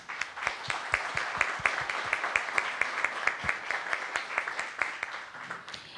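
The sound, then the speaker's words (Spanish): A crowd applauds a woman who worked on a document in the northern Tzotzil language, many hands clapping steadily for about six seconds in a dense, even patter with a few sharper claps standing out, fading slightly at the end. “únicamente contamos con la presencia de una compañera que ella eh, trabajó el documento en la lengua tzotzil del norte y pues a quien también igual les pido un fuerte aplauso a la compañera”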